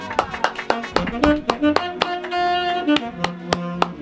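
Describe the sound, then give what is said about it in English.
Sustained, buzzy horn tones held at a few different pitches, underneath a busy pattern of sharp, rhythmic taps and clicks that keeps going across the whole few seconds. “That's a horn. That is a horn.”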